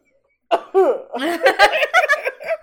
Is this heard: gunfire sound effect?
no